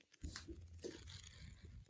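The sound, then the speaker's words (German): Pages of the book Trauma im Computerspiel by Thomas Spieß being flipped in quick succession, a crisp papery rustling and fluttering that runs steadily for about two seconds with no one speaking. “So, das waren die Buchseiten des Buches Trauma im Computerspiel von Thomas Spieß.”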